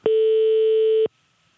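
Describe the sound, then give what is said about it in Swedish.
A single steady, buzzy telephone ringing tone sounds for about one second on an outgoing call to the Swedish Government Offices, loud, then cuts off into near silence. “Ja, inte riktigt nått ända fram, men jag ringde till faktiskt till regeringskansliet.”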